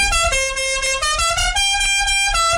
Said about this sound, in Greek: Ε, λοιπόν, κορνάρο.